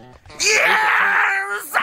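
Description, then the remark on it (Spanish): A single loud, drawn-out vocal wail rings out, holding a strained, wavering pitch for over a second before breaking upward at the end. “Ah, el grito, el grito.”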